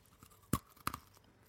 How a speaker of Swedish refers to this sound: vi låter någon av oss eh, ta en bit av fikat och liksom hålla den uppe mot eh, mikrofonen. Eh, det låter eh, eh, nice. Eller? Vi har eh, kaffe såklart. Eh, och till det så har vi hemmabakta eh, kolakakor. De låter så här.